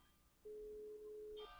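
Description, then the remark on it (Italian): A single steady telephone tone, a flat mid-pitched beep lasting about one second, plays over a quiet background as a phone call is being placed. “Stiamo digitando.”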